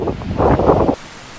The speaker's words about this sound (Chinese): 这里的海浪不小哦，哦不小，可是呃，基本上它不是一个岩石太过耸立的地方，因为如果岩石石头很多很堆叠的话，那个海浪的声音听起来会晃荡荡、晃荡荡，但这个听起来比较客气。